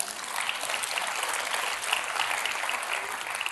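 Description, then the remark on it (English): Steady applause from a large audience in a church, dense overlapping claps at an even, sustained level with no voices standing out. “So, let me just remind you you have an amazing church. And uh, one of the things that I love about your church, you can clap for that,”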